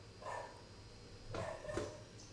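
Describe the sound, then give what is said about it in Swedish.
A dog barks a few times in the background in Santa Monica, three short, fairly faint yaps spread over a couple of seconds against a low steady hum, with no one speaking. “Vänta, det är en hund som skäller bak.”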